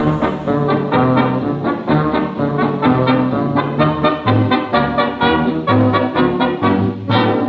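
An old 1930s gramophone record of a pre-war Polish popular song plays a steady, full band tune, the sound thin and muffled at the top with a faint crackle underneath, continuous and fairly loud with no talking.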